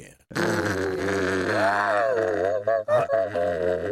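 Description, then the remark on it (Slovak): A voice imitates a fujara shepherd's flute: one low, buzzing, overtone-rich tone held for nearly four seconds, wavering and bending in pitch midway and near the end, loud. “Fujara je náš národný nástroj.”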